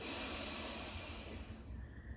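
A long, steady, airy inhalation drawn through the nose during a guided breathing exercise, a breathy rushing that holds for about two seconds and then softens toward the end, with no talking.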